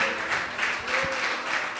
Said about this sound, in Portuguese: E assim que você se colocar de pé, eu quero pedir a você, vamos dar para Jesus a sua melhor salva de palmas. Mas eu quero que você aplauda bem forte ao Senhor.